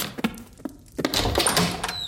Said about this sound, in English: Ooh, I'll get the door.